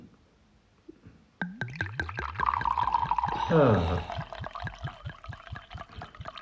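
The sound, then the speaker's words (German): White wine from Spain poured from a bottle into glasses: rapid, steady glugging that rises in pitch as the glass fills, with a brief exclamation from a voice. “was ihr jetzt gehört habt, ist ein hervorragender Weißwein aus Spanisch, spanischen Landen.”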